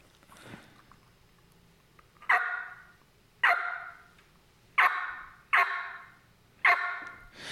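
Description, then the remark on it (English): Five sharp, raspy turkey calls burst out loud in an uneven sequence, similar to a yelp but much more aggressive, each call hard-edged before trailing off, with no talking. “Now that does sound similar to a yelp, but it's much more aggressive.”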